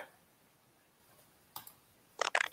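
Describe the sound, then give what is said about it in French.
Faint, crisp clicking from a phone: one short tap, then a quick pair of sharper clicks moments later, over a quiet, slightly hissy background with no talking. “je sais pas qui fait du bruit avec son téléphone là”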